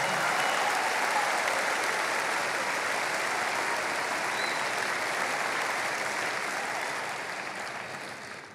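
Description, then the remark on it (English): An audience claps their hands in sustained, dense applause at a steady level, then gradually fades near the end. No one speaks over it. “Clap your hands and say it's prayer time in America.”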